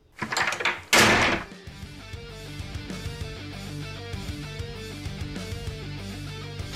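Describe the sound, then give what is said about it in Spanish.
A loud door slams shut once, sharp, after a brief rustling build-up, then settles into steady background music. “Entonces, ¿qué te parece si le damos portazo y empezamos con el recalentado?”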